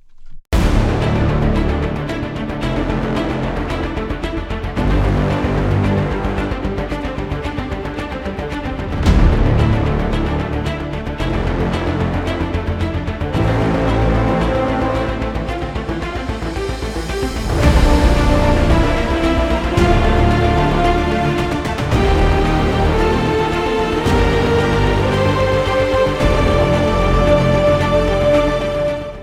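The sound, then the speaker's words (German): A steady, full-sounding music loop plays alone, then after about two bars its tone abruptly shifts as it is switched through the Incredible Hit Button audio plugin by Incredible Audio, becoming brighter and more present while the level is matched so the loudness stays the same. “ich habe jetzt den Pegel wieder angepasst, dass es nicht lauter wird, sondern dass es sich nur im Sound ändert.”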